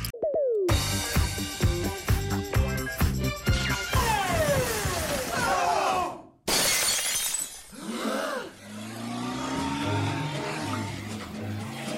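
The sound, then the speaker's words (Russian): Glass shatters into pieces with a loud crash, followed by a rapid run of bright tinkling fragments, then a second burst of cracking and scattering shards mixed with a low rumbling hum. “Это не просто дребезги, это автомобильная это да, это, между прочим.”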